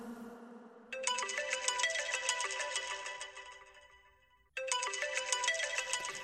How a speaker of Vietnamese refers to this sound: ngắt máy, nhưng điện thoại vẫn reo chuông liên hồi.